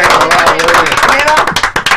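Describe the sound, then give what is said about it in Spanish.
A burst of hands clapping, quick and dense, continues steadily for two seconds while a voice talks over it. “Un aplauso para Alexis”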